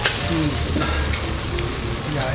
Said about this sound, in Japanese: ジュージュージュージュ言ってますねほんまに普通に焼いてるもんこれ